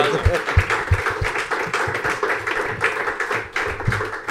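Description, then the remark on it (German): A crowd claps steadily for several seconds to welcome two guests, EHC sport chief Martin Steinecker and Gerd Sennhäuser, to the table before the Biel versus Fribourg match, a dense patter of hands with a few sharper claps, while voices murmur underneath. “Ich glaube, das ist auch nochmal ein Applaus”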